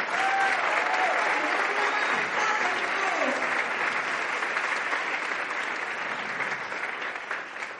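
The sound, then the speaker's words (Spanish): Sustained applause from an audience for an international executive diamond, a dense steady clatter of many hands clapping at once that stays loud throughout and only tapers slightly at the end, with faint voices mixed in. “Un, un aplauso, por favor, para el este diamante.”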